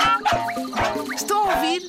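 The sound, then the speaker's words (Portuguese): A strange, synthetic-sounding barking of a robot dog in the depths of a forest: several warbling, electronic yaps in quick succession with sliding tones, loud, with no talking. “Ao fim de algum tempo, começaram a escutar um estranho ladrar.”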